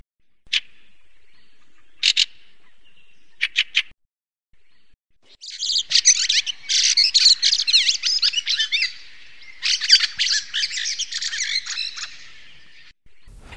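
Fieldfare (Turdus pilaris) calls: a few short, sharp chattering notes, then a longer burst of harsh, rapid chacking in the middle and latter part. Clear, no voices present.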